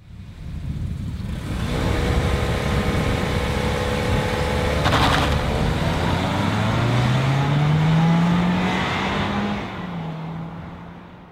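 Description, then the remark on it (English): A four-cylinder car engine revs loudly, its buzzy, whining pitch climbing steadily over several seconds before easing off near the end. No voices are heard. “This is what four cylinders sounds like.”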